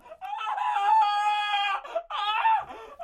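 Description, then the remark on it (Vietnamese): A bird squawks piteously in two loud, strained cries: one long drawn-out wail, then a shorter second one after a brief gap. “Cùng lúc đó, lại nghe thấy tiếng chim cuôn kêu lên thảm thiết.”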